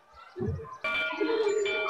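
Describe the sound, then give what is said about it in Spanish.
A school bell at the Liceo Pedro Monte in Valparaíso, heard from the school library, rings to mark the end of recess, starting abruptly after a brief low murmur and continuing as a steady, bright, sustained ringing at an even, loud level. “Ya suena la, campana que está diciendo que terminó el recreo.”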